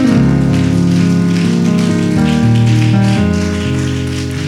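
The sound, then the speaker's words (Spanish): A church audience applauds the Lord with loud, steady, dense clapping that holds for several seconds over sustained keyboard chords, with no voices heard. “Dele fuerte el aplauso al Señor, hermano.”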